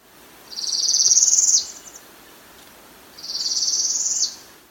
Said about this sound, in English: The northern parula is also a really common bird confused for Bachman's warbler because not only does it look very similar to the female, but also sounds really similar to the male. Here's Bachman's warbler. And here's the northern parula.